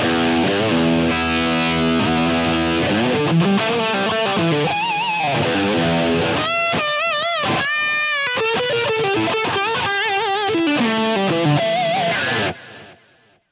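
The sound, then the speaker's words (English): Overdriven electric guitar, boosted by a tube screamer-style pedal into a crunchy amp, with a crunchy, saturated tone plays sustained lead lines and bent notes, loud with no talking, then cuts off abruptly near the end. “So crunchy amp with a tube screamer in front, classic recipe.”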